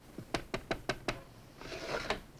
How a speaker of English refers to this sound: It's later in the day, and Sam has shown up at a speakeasy. He knocks on the door